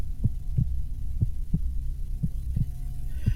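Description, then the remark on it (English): A steady heartbeat of an old man thumps in low, muffled double beats, about one lub-dub per second, over a faint droning hum with no voices. “It was the beating of the old man's heart.”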